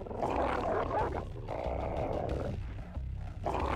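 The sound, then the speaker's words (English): Several canines snarl and growl in a continuous, loud scuffle, with rough overlapping barks and guttural roars and no pauses, as hounds jump on a large gray wolf in a vicious fight. “Three more hounds jump on the gray wolf.”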